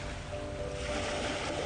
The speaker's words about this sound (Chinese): 你站了起来，沿着海浪退去的沙滩。往海里走，仔细感觉脚下的地面越来越软，海水越来越深，你还可以听到海浪退去的声音，